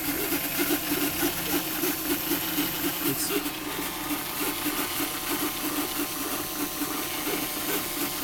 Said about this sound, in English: So we got um, we got the 3D printer started.